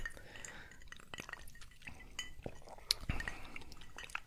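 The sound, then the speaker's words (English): Glasses clink together with a few sharp chinks, followed by quiet liquid sounds of whiskey being sipped, fairly soft, with no talking. The whiskey is William Grant & Sons Rare Cask Reserves, a 21-year-old blended Scotch. “So we're drinking today um, William Grant and Sons Rare Cask Reserves. It's a 21 year old blended Scotch whiskey.”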